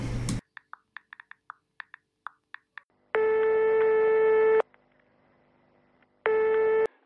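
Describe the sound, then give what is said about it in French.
A quick run of short dialing beeps, then a telephone ringing tone sounding in long buzzy bursts separated by a pause as someone places a call, clear with no one talking. “Euh, qui c'est que je peux appeler bah, Je vais appeler”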